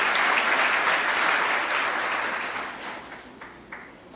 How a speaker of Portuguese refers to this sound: Vamos dar uma salva de palmas para o Senhor, que Ele merece toda a honra, toda a glória.